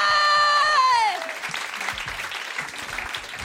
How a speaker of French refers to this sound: Mais c'était génial On l'applaudit encore